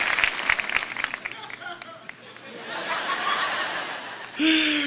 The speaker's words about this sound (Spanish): Un aplauso a producción que son rapidísimos.